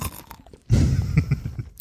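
Loud chewing of crunchy caramel candy: a burst of crisp crunches after a brief quiet start, continuing in uneven bites with no talking.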